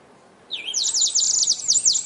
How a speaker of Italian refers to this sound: Apriamo con ah, l'uccellino della radio praticamente. che annuncia l'ora, 15.03 tra qualche tra secondo.